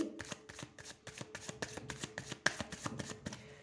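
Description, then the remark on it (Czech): Tarot cards being shuffled: a quick run of crisp, papery riffles and soft slaps in an uneven rhythm, moderately loud with no one speaking. “Já už beru do ruky tarotové karty a my se spolu podíváme konkrétněji”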